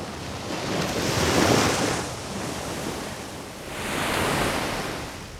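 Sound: sea waves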